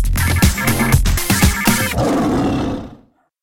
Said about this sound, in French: Et il détestait ce jingle avec ce lion, donc je vais le repasser rien que pour lui.